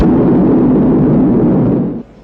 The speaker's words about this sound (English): T minus 10 seconds. 9, 8. We have ignition. 6, 5. We have outboard engines. 3. We have inboard engines. 1, 0. We have a launch commit. We have a liftoff at 35 minutes after the hour.